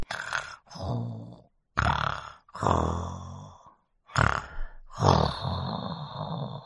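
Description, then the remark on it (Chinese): A voice imitates a kangaroo snoring as it sleeps in bed: loud, rumbling snoring in four drawn-out breaths separated by short pauses, each a throaty, rattling snore in a steady rhythm, with no speech. “袋鼠钻进了被窝里，呼噜呼噜睡起了大觉。”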